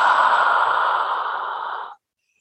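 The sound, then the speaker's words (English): A single long, deliberately vocalized inhale drawn in through the mouth during breath-listening mantra practice, a steady breathy rush lasting nearly two seconds before stopping abruptly, fairly loud, with no talking. “And if you listen to the breath, you'll hear that the inhale has a certain sound.”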